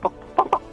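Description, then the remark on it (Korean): Someone does a vocal rooster impression in an impression contest: three short, nasal, clucking bursts in quick succession, moderately loud, with no other talking. “뭐닭 울음소리 뭐.”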